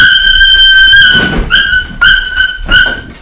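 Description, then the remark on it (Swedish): A frightened female puppy yelps: one long, shrill, high-pitched cry, then three shorter piercing yelps in quick succession, loud and with no one talking. The puppy is scared of a large Jämthund (Swedish elkhound). “Det var bara den lilla valpen som blev rädd för den stora jämthunden.”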